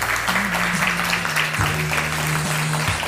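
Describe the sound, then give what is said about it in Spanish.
An audience applauds in a dense, steady wash of clapping that holds at a fairly loud level for about three seconds, with a low sustained hum running underneath. “Bienvenidos todos, un fuerte aplauso.”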